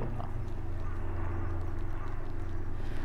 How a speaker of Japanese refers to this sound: ヘリコプターヘリコプター多いですね京都さっきからずっと飛び続けてるよ